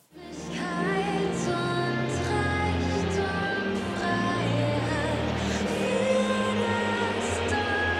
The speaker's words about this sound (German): Und man hört im Hintergrund, die Frankfurter Fans fanden das gar nicht witzig und haben gepfiffen nicht gegen sie.